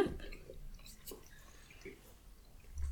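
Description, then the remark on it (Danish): Soft chewing of a bite of a small pancake topped with thick crème fraîche, with a few wet, squishy bites spread over a few seconds, quiet and intimate with no talking. “noget rigtig tyk creme fraiche og fiskerum på, og så tager man bare i en bid.”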